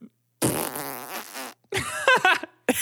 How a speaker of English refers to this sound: And that is a fart.